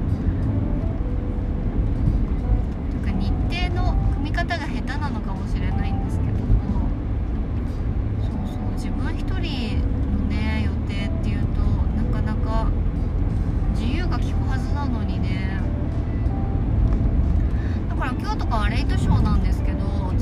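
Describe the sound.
Steady, loud low rumble of road noise inside a moving car driving out to buy supplies on a blazing hot day, continuous for the whole stretch, with a person talking over it throughout.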